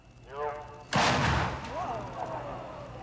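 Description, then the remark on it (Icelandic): A single sudden, loud bang as a foam block, fired at about 800 km/h, slams into a space shuttle wing panel, punching a hole over 40 cm high and wide, with a sharp crack that rings and fades over a second or so. Brief voices are heard before and after. “Svo var skotið.”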